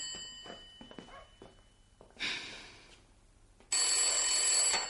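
A telephone, brought in by a servant and set on a table, rings loudly in two sharp bursts, with a brief quiet gap between them and faint background activity underneath.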